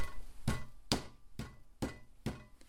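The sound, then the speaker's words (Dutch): Five heavy, evenly paced thuds imitating soldiers' boots tramping up stairs, knocked out by hand as a sound effect, fairly loud with no talking over them. “Je hoort de soldaten de trap oplopen. Ja, soldatenschoenen.”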